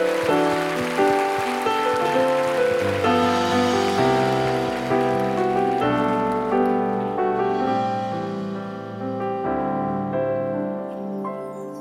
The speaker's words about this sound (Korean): 끊을 수 없는 하나님의 사랑을 보여주시 우리 주님께 감사 영광의 박수 올려드립시다.